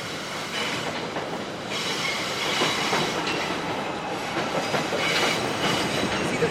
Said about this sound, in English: this is the number two and five line, the elevated train we're about to pass under here. So it also gets quite a bit uh, noisier with street traffic and train traffic.